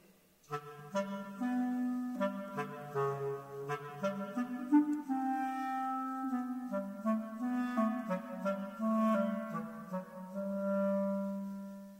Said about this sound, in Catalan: En aquesta història, cada personatge és representat per un motiu musical determinat i per un instrument diferent. L'ocell per la flauta. L'ànec per l'oboer. El gat pel clarinet.